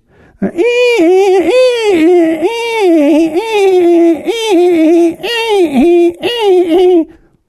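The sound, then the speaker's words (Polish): A voice mimics a primary-school beginner scratching away at a violin, as heard from a practising neighbour in an apartment block: loud, whiny sustained tones that slide and wobble in pitch, broken into uneven phrases with brief pauses. “I jak to jest szkoła podstawowa i ktoś na skrzypcach próbuje.”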